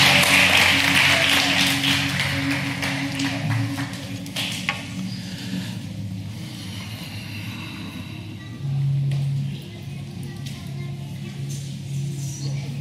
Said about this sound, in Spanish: Vamos a colocarnos de pie. Dale un aplauso bien fuerte a Dios.